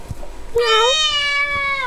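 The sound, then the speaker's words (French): A single drawn-out cat meow, rising then holding a bright, slightly wavering tone for over a second, loud with no talking over it. “je laisse jouer ça des sons de chat qui miaulent comme ça”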